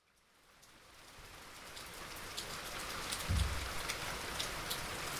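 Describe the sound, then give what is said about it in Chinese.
Heavy morning rain outside a window swells up from silence into a dense, steady hiss of pouring water, with a brief low thump partway through and no voices. “想不到，早上一起床发现窗外正在下着大雨，难得的日子真是扫兴，而且一整天都湿湿冷冷的，非常不舒服。”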